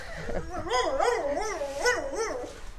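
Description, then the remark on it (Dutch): A small dog in the background gives a rapid run of high, wavering yelping barks, about six in quick succession, fairly clear and moderately loud with no one talking. “Ik weet niet of je het geblaf op de achtergrond kan horen.”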